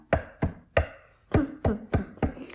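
Seven hard knocks on a wooden surface, fairly loud: three evenly spaced raps, a brief pause, then four more at a steady pace. No one speaks.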